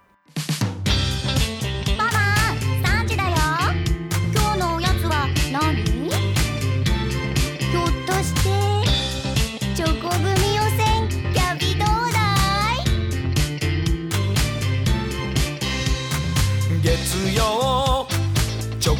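A bouncy snack-themed pop song plays loud and steady throughout, with sung vocals gliding over a full, busy backing of beats and instruments after a brief start.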